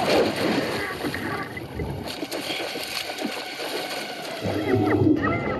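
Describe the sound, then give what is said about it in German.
Water in a pool splashes and churns in a continuous, turbulent struggle as one woman pushes another's head under water, with the thrashing growing louder and more vigorous toward the end. “Kelly drückt Susis Kopf unter Wasser.”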